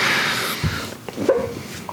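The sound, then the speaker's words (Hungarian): A singer's voice breaks into short, sharp bark-like yelps, three or four quick bursts in a row over a dense, noisy backing, loud. “sokat játszik a hangjával, és egyrészt tényleg különböző hangszereken tud énekelni, másrészt meg terakja ilyen inflexiókkal egy csomószor, meg ahogyan szokták fogalmazni az amerikai kritikusok, ilyen kis ugatásszerű vagy csaholásszerű effektekkel.”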